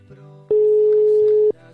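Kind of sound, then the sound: signal or alarm, telephone line ringing tone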